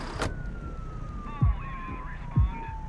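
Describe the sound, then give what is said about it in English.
The siren of a fire truck racing down the street toward an explosion wails with slowly sliding, warbling tones over a low traffic rumble, punctuated by two dull thumps and a brief burst of noise near the start. “He picked up a cop buddy of his, and the two men bombed it down the street, sirens blasting.”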